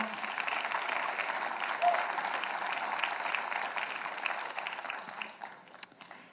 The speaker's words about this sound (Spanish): Amén, un aplauso al Señor.